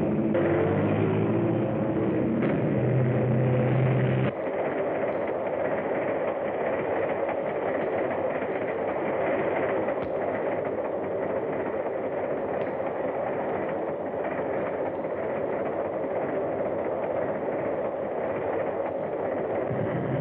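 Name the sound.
train running on rails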